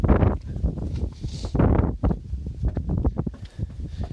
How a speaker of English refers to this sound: Is it windy outside? Yes.